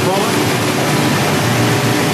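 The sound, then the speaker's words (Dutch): A loud, steady rushing roar of air fills the whole clip as a waste bag from the city centre is sucked at about 70 km/h through a pneumatic waste collection pipe, with a dense hiss throughout. “komt weer een zak uit het stadcentrum met eh, hoeveel kilometer per uur hier aan?”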